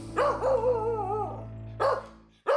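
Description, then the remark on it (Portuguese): A dog named Azatot, tied up on its collar, barks in a few loud, drawn-out yowling barks with a whining, howl-like tone, separated by brief pauses, with a steady low hum underneath and no talking. “Preciso soltar o cão que está a se acabar preso à coleira.”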